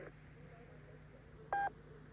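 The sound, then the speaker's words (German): A single short electronic beep, a clean steady tone lasting under a quarter second, sounds over a quiet telephone line with a low hum. It is a German-language telephone speaking clock's time signal marking 10 hours, 59 minutes and 50 seconds. “Beim nächsten Ton ist es 10 Uhr, 59 Minuten und 50 Sekunden.”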